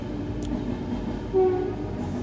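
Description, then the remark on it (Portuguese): A train rumbles past with a steady, fairly loud low roar and a brief tonal whine partway through. No one speaks. “Hum, vocês sabem, está a passar um comboio.”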